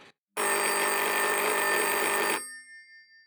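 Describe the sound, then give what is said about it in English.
A loud office telephone bell rings continuously for about two seconds, a bright metallic jangle, then cuts off and leaves a short ringing decay. “And then the phone rings.”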